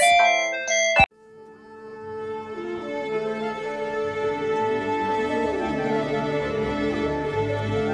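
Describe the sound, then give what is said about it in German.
A brief electronic telephone ringtone melody of quick stepped beeps cuts off abruptly after about a second, then gives way to a fuller, sustained musical passage with layered tones. “Jetzt das klingelt das Telefon im Trialog.”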